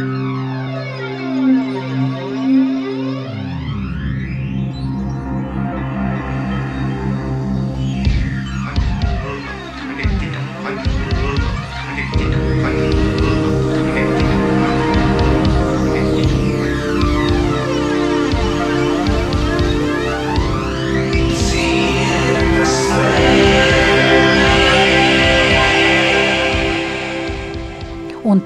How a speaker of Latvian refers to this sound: Runā jaunatnes raidstacija Dzirkstele. Tā raidījuma dzirksteļu signāls skanēja 60. gados.